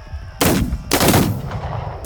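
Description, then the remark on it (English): A group of townspeople fires guns in a ragged volley at gunslingers charging a barricade: three loud, booming blasts at uneven intervals, each trailing off into a rough rumble, with no voices. “The townspeople fire.”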